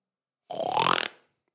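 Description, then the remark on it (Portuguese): A person mimics a loud snore with their voice: one rough, throaty snort lasting under a second, forceful, rising slightly in pitch before cutting off into silence. “Algumas pessoas roncam baixo, outras pessoas roncam alto, como o meu pai.”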